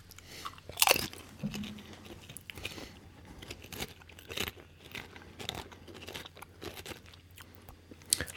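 Crisp crunching of a crispy Banjo hazelnut snack being bitten and chewed, with repeated sharp cracks, a loud bite near the start and steady munching throughout, no talking.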